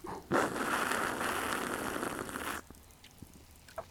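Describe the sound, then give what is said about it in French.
Beer foam fizzing right up close as a can of beer is opened, a dense, crackling hiss that holds steady for about two seconds, then cuts off abruptly, leaving a few faint scattered pops. “ok, yo, le monde a du jizz entendre la mousse aussi proche de leur oreille, là.”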